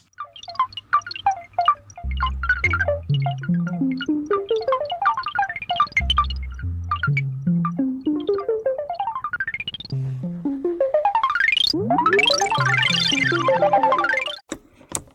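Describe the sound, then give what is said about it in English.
A single water-drop plink looped at shifting speeds, its rapid repetitions sweeping up and down in pitch into a dense, fluttering electronic texture, loud and continuous, with no voices. From Canadian composer Hugh Le Caine's 1955 tape piece Dripsody, made with only 25 splices. “It, it's it's based on the sound of a single drop of water that's looped in variable speeds with only 25 splices.”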